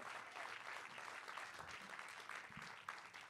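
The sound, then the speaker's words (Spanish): An audience applauding, called on to give applause to someone who has faith: a dense, steady wash of many hands clapping that holds at an even level for a few seconds, with a faint voice underneath. “Vamos, dale un aplauso a alguien que tenga fe.”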